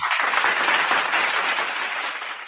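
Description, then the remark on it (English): A burst of crowd applause on a fantasy football show, dense and steady clapping that sounds like a canned sound effect, holding at an even level for a couple of seconds before tapering slightly at the end. “I even I even get applause, man.”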